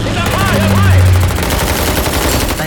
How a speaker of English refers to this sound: The guns all around the ship blazed out as enemy planes shot past.